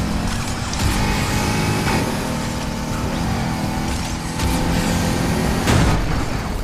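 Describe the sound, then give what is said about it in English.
A steady, loud car engine drone from a video game fills the scene as the player drives through traffic, with passing cars whooshing by and a few sharp bursts rising over the continuous rumble. “Whoa, car, car, car.”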